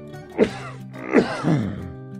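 A man coughs from outside the door, about three rough, voiced bursts with a throaty, groaning tone. No one speaks.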